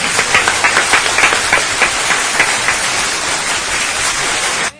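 Steady, loud applause from a crowd: dense crackling claps fill the whole stretch, with slight rhythmic swells early on, then it cuts off abruptly at the end. No one speaks.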